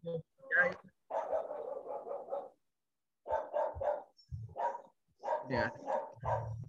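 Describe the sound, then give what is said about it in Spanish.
A dog barks repeatedly and fairly loudly in several rapid volleys separated by brief pauses, with some yipping mixed in. “O sea, sí estoy pegado, que estaba viendo el perro.”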